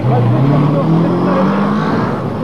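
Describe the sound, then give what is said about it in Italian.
Car engines rumble and drone steadily, a loud, continuous street-traffic hum with a faint murmur of indistinct voices underneath, at the scene of an attack on Via Stresa, a residential street in Rome, with many cars, ambulances and nurses, at ten to ten. “Ci sono molte automobili, ambulanze, infermieri, andiamo ad avvicinarci.”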